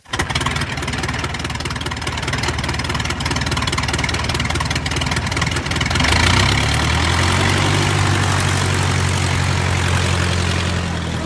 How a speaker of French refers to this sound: Vers 7h30 du matin, un groupe de voyageurs s'apprête à monter dans un petit avion bimoteur blanc couleur de la force aérienne uruguayenne. L'appareil, un Fairchild 227, a été loué pour acheminer 40 personnes à Santiago du Chili